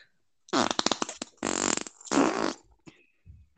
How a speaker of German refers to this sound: Internationaler Furzpups.